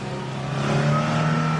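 A woman starts her car and drives off: the engine runs and revs up, its steady hum climbing in pitch as the vehicle pulls away. No voices are heard.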